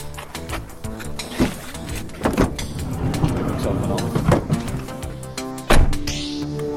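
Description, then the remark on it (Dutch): Several solid thunks and clunks from a car door with a special pull-and-push mechanism opening and shutting as people get into the car, with a loud final slam, over steady background murmur and humming. “Kijk, hier is mijn auto. Stap maar in.”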